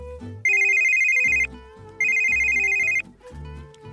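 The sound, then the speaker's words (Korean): A telephone without caller ID, in 2010, rings with a telemarketing call in two long, bright, electronic trills of about a second each, separated by a short pause, with a steady high pitch and faint background music underneath. “아, 그때도 지금처럼 텔레마케팅이 진짜 많았는데 그때는 어디서 전화가 온 건지 알려주는 기능이 없어서 일단 받아봐야 했죠.”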